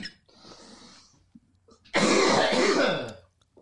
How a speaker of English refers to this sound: I could have kept talking while you were coughing. yeah, you could have.